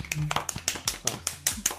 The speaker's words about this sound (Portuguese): Palmas. Palmas.